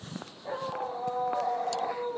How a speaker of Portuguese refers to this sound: cachorrada agora vai que vai.